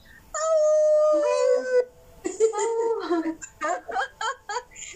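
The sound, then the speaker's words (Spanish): Human voices imitate a howl: one long, steady, slowly falling howl, then a looser run of shorter, wavering howls and yelps that sound fairly loud. “Echen el aullido en el chat y todos de aquí.”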